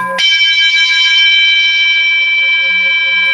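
A meditation bell lent by the Irmandade is struck harder once, its bright metallic tone ringing out loud, then sustaining steadily with a shimmering, slowly fading resonance.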